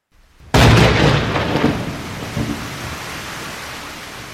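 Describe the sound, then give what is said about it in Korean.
Heavy rain bursts in after a brief quiet moment, a dense, loud roaring hiss that eases slightly and settles into a steady downpour with no voices. “게다가 또 큰 비가 내리기 시작하니”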